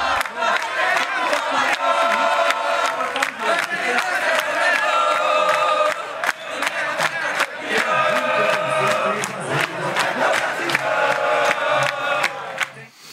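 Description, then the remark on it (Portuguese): A crowd of fans cheers and chants loudly and without letup at a party at the Museu do Futebol at the Pacaembu stadium, voices blending into a sung roar, with scattered claps and shouts cutting through for the whole stretch. “tá aí a festa maravilhosa no Museu do Futebol ontem.”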